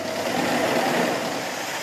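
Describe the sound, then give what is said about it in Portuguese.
Vehicle engines rumble steadily with a broad, even road noise and no clear rise or fall, as vans and other vehicles carrying refugees keep passing across the border toward Armenia. No voices are heard. “E também nas vans e outros veículos que não paravam de passar em direção à Armênia.”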